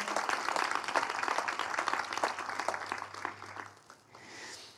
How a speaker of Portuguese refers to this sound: Será que você pode aplaudir se você recebe?